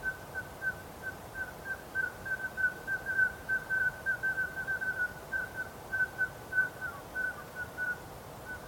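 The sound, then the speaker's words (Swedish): Common scoters piping in night flight over a lake: a steady stream of short, high whistled pipes, many overlapping calls from a passing flock, over a soft background hiss. “Det piper och piper och piper uppifrån sjön och det är rätt härligt att höra.”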